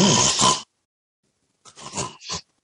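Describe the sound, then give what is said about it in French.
A voice imitates snoring: one long rasping snort, a second of silence, then a choppy run of three or four short, grunting snores. “Mais quand quelqu'un ronfle, par ah. exemple, c'est des bruits qui sont saccadés, c'est comme”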